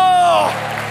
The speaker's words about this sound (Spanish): Fuerte ese aplauso al que vive. Amén. Amén. De un grito de victoria. De un grito de victoria. Fuerte ese aplauso.